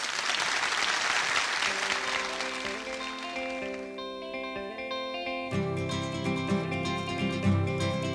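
A burst of dense audience applause fills the opening seconds, then fades as sustained, reverberant musical tones swell and take over, with a deeper, louder chord entering near the end.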